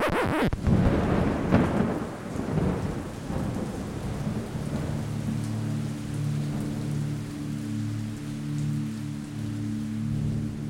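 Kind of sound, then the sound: nature, thunderstorm with heavy rain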